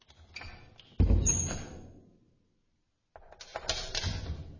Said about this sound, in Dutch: Terwijl hij daar vaag over nadacht, luisterde hij onbewust naar de geluiden die uit de diepte van het gebouw gedempt zijn kamer binnendrongen. Het openen en sluiten van een deur,